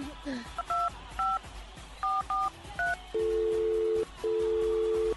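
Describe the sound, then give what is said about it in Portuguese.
Several quick two-tone keypad beeps as a borrowed mobile phone is dialed to make a call, tapped in an uneven rhythm, followed by two long steady ringback-style tones, fairly loud over faint background noise. “É, é, vocês podem me emprestar o celular?”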